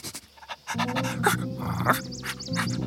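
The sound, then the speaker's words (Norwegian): A small dog pants in quick, rhythmic breaths, and after the first moments a steady, tonal whine-like sound runs beneath the panting. “Men se på deg, lille bikkjevovven.”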